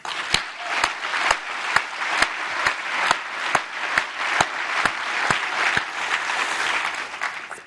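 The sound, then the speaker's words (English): A crowd at an NHS England event applauds steadily for several seconds in appreciation of George, a star of stage, screen and the Strictly dance floor. It is a dense wash of many hands clapping, with a few sharper, louder claps standing out and no voices heard. “Let's all just show again our appreciation for George.”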